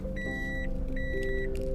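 A small kei car's engine idles steadily while being reversed and parked on arrival, with two long electronic beeps like a reversing warning sounding in turn over the low rumble. No one speaks.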